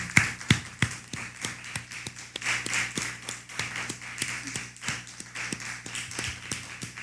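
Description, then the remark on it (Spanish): A small group claps steadily for several seconds, a dense patter of hand claps with no voices, moderately loud throughout. “Entonces, eh, vamos a darle un fuerte aplauso”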